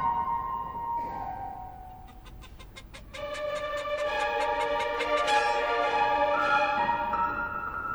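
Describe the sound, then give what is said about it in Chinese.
A rooster and hens cluck in a steady run of rapid, evenly spaced clucks layered over sustained, tonal calls. The sound grows fuller partway through, and no one speaks. “公鸡与母鸡早就已经准备好要上场表演喽！”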